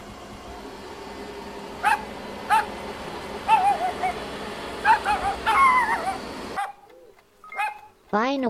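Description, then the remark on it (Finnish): A dog barks sharply several times in irregular bursts over a loud, steady mechanical roar that suddenly cuts out, leaving a brief high yelp near the end. “Piski vittuun siitä nyt tai imuroin sinut koirien taivaaseen.”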